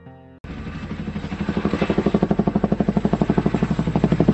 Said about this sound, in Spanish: Escuché un helicóptero a lo lejos. Esa era mi única salvación para no morir en medio de la nada.